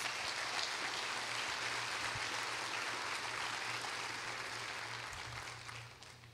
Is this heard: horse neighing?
no